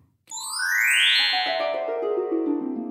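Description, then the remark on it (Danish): A short electronic jingle introducing recurring segments, on its own: a bright tone sweeps upward, then a run of stepped notes tumbles back down, loud, lasting a few seconds. “det er lyden af de faste indslag”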